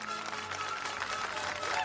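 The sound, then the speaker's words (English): A steady burst of applause in tribute to the late John Cheney, many hands clapping in a dense, crackling wash that stays at an even level for about two seconds, with no voices rising above it. “So can we get some claps for Mr. John Cheney as well, please?”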